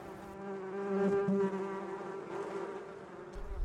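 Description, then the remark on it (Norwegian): A steady, droning hum of many honeybees buzzing around hives kept for pollination on an organic fruit farm in Hardanger, Norway, continuous, with overlapping wingbeat tones swelling slightly and no voices. “Og det er jo derfor jeg har bier sjøl.”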